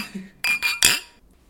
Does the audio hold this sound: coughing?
no